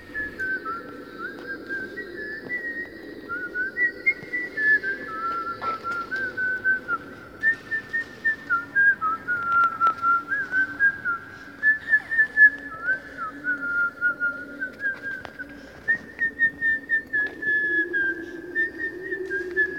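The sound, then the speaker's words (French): Someone whistles a light, lilting little Italian tune for about twenty seconds, steady phrases of clear sustained notes over a faint low murmur, sounding reverberant inside the Ear of Dionysius, a dim cave beside the Greek theatre. “qui, qui va siffloter un petit air italien.”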